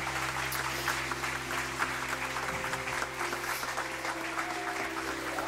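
A crowd applauds steadily, a dense, continuous patter of many hands clapping at an even loudness throughout, with a low steady hum underneath and no speech.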